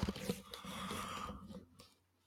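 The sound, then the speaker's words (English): A single long, breathy yawn, stretching out for over a second with a slight voiced tone before trailing off into quiet. “That was a great yawn.”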